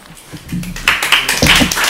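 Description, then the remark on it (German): An audience at the end of a talk evening with speakers breaks into applause after a brief quiet moment, the clapping swelling into a dense, steady patter that stays loud to the end. “Applaus”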